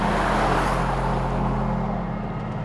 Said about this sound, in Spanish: El futbolista se sube a otro coche estratégicamente aparcado en un cruce de caminos, pisa el acelerador a fondo y desaparece del lugar a toda prisa.